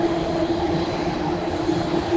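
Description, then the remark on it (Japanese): A train rumbles past, a steady loud low roar with a sustained tonal hum running through the whole stretch and no pauses. “今電車が通ってうるさいんですね”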